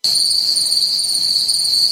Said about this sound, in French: Ah, et voilà, là, on les a, les grillons.